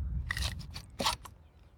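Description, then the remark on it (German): A small phone holder slot at the top of a drone remote control slides out with a few quick plastic scraping clicks, short crunchy bursts in an uneven rhythm over a low background rumble, no talking. “Also so wie wir es aus, dem, aus den äh, Videos kennen, kann man hier oben einen kleinen Schacht ausfahren.”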